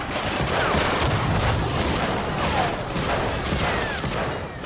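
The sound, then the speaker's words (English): Dense, continuous gunfire from the video game Medal of Honor, played on an Xbox, fills the scene: a loud chaotic barrage of rapid shots and bursts blending into a sustained roar of battle, with faint voices mixed in. “Well, that's the video game version anyway heard here on my buddy's Xbox in the battle epic Medal of Honor.”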